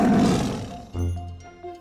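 A loud tiger's roar: a raspy, full-throated blast that eases off, then a deep rumbling growl with a second short surge near the end.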